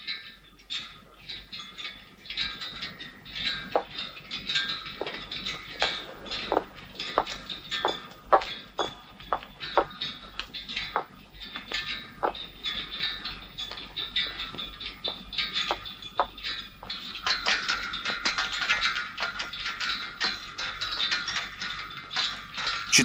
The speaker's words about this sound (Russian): звук флагштоков, качающихся на ветру ночью, которому долго и молчаливо внимает главная героиня.